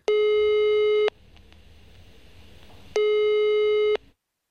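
Two long, steady ringback tones from a telephone line while calling for a phone interview, each about a second, separated by a pause of roughly two seconds, heard clearly over a faint background hiss with no voices.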